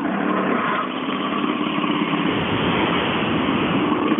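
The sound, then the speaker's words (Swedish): A vehicle engine runs close by with a rough, uneven rumble, holding a steady loud drone for several seconds with no voices over it. “hur låter det här egentligen? Ja, det låter inte bra. Nej, jag tycker inte det. Nej. Det Något grenrör eller avgassystem eller något?”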